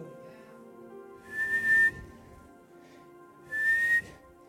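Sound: small whistle being blown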